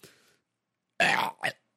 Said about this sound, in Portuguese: desculpa o arroto, mas eu tô na minha casa e você que tem que pedir desculpa por estar ouvindo o meu arroto